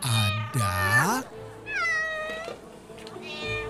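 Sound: kittens meowing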